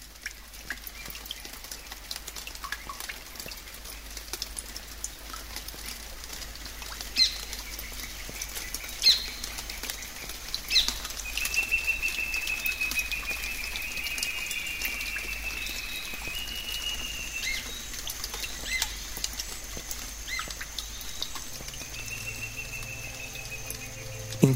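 A dense outdoor chorus of many birds calling and singing at once in the canopy of a giant Amazon rainforest tree over 40 metres tall at dusk, a steady busy wash with occasional higher whistles rising above it, with no voices.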